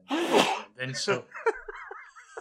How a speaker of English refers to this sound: what the fuck was that? That was incredible. Was that a sneeze? yeah. I thought that was you going smew.